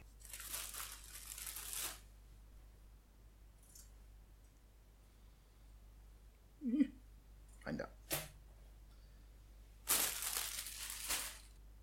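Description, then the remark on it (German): Someone puts slices of toast into a toaster: a burst of crinkly bag rustling, a few short clunks and clicks, then another stretch of crinkling. “Ich muss mir erst mal Toast reinmachen.”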